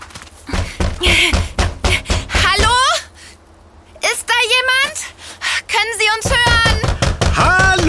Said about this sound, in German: lass uns ganz laut dagegen klopfen und rufen.